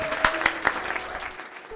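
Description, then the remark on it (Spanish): An audience on the program Tona de Todos applauds to welcome a special guest. The steady, dense, crackling patter has a few sharp, louder claps near the start, then thins slightly toward the end. “Un aplauso, por favor.”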